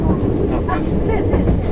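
A JR 225 series special rapid (Shin-Kaisoku) commuter train, running from Ashiya to Osaka, rumbles loudly and steadily, a dense low roar with faint higher whines, for a brief moment.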